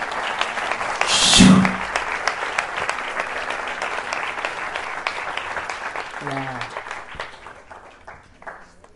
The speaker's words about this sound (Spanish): Oh, qué tremendo. Esto merece un aplauso, hermano.